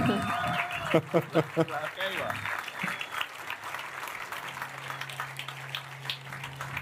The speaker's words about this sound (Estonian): palun nii jätkame plaksutamist, nad on tulevad.